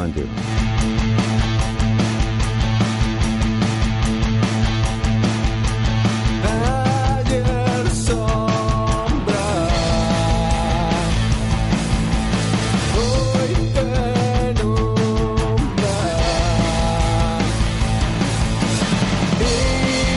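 A pop song plays continuously at a steady level, with a full band of drums, bass and melodic instruments under a sung vocal line, like music broadcast over the radio.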